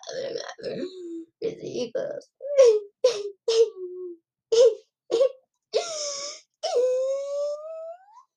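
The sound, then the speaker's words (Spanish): A woman's voice wails and moans in a string of short, sobbing cries, then two long, drawn-out eerie wails that slide in pitch, fairly loud with brief gaps between. These are the cries of La Llorona shouting 'ay, mis hijos' in Xochimilco. “Aquí Mm, dicen que este por ahí en Xochimilco, pues sí, sí escuchaban a la llorona gritando, ¡ay, mis hijos!”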